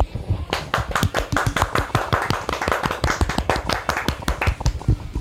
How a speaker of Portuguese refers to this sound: Mas a equipe do Ideal, poxa, uma salva de palmas para Bombinha.